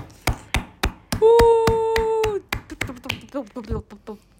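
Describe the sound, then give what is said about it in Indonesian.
Hands slap a tabletop in a steady, even rhythm of sharp thuds, continuing under a long held vocal cheer and then under excited voices. “ya itu baru saya tepuk tangan ini adalah episode keempat kita tepuk meja”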